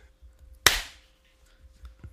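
One sharp hand clap, made as a sync clap at the start of a recording after a countdown, cracks out loud and bright, then rings off in a short decaying tail, with only faint low background rumble before and after.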